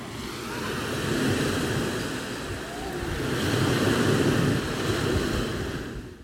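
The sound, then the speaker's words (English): Steady roar of sea waves mixed with gusting wind buffeting the microphone, swelling and easing in broad surges, continuous and fairly loud with no one speaking, heard from a viewpoint at the highest point of old medieval ramparts, looking out to sea on the Costa Brava. “And I'm um, looking out to sea right now at a viewpoint called Chalet den Bram.”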